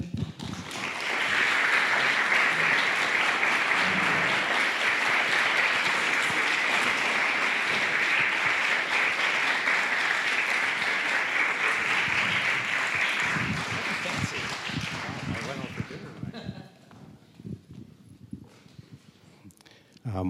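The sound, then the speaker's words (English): An audience claps steadily for about fifteen seconds for a man about to tell his story, a loud, dense wash of hands that holds level and then tapers off, with a few scattered claps trailing into quiet. “So please clap for him.”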